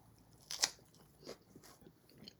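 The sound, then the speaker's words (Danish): A crisp bite into crunchy food, followed by a few softer, irregular crunching chews. It's quiet, with no talking. “Så tager man lige en bid, mens, mens vi venter.”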